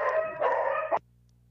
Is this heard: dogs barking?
yes